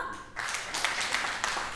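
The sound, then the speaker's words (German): An audience breaks into clapping in response to a question after a brief pause, a dense, steady burst of applause from many hands that carries on to the end without anyone speaking. “Einmal klatschen, wer findet das auch?”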